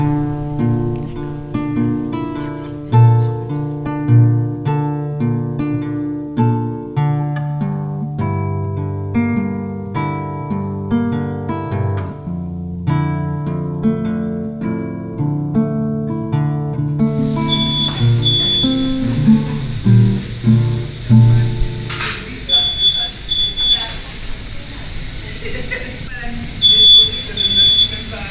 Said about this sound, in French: Là, je vais passer une semaine hein, et je fais un, un petit sujet de création sonore autour de l'ambiance de la maternité.